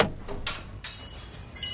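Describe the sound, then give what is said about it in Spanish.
A door opens: a few quick clicks of the latch, then a longer scraping creak as it swings, fairly quiet with no voices. “Abrimos la puerta de la pequeteca a María Crespi.”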